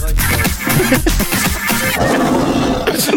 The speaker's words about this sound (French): Ah, le jingle tigre. Pour ça, je vais le repasser une deuxième fois.